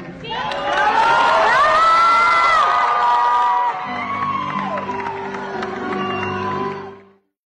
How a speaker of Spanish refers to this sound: obviamente empezó a, cantar y sí hubo momentos momento donde se le quebraba la voz y la gente le aplaudía y le reconocía además